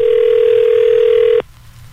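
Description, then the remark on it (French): A steady, loud landline dial tone hums continuously for over a second, then cuts off abruptly, leaving only faint background noise. “Dans le temps, on faisait des coups de téléphone, on va tout de suite.”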